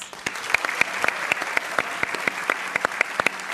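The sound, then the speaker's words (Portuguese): An audience claps steadily as journalist Gerson Camarote is introduced, a dense patter of many hands with sharp individual claps standing out, at a moderate, even level with no voices. “Para falar do imenso artista, vamos pelo caminho do afeto conversar com três amigos do Ariano: o jornalista Gerson Camarote, aplaudam,”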